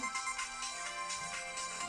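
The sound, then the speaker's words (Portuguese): A telephone ringtone chimes steadily, a bright electronic melody repeating in quick pulses with no voices over it. “Vamos atender.”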